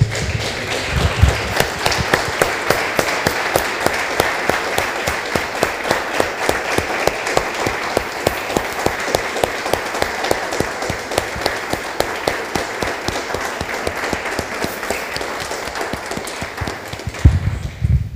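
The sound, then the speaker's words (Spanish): An audience applauds for the Lord after a prayer, steadily for about eighteen seconds, a dense, even roar of many hands clapping with a few sharper claps standing out, no voices heard over it. “Damos un aplauso, hermanos, al Señor.”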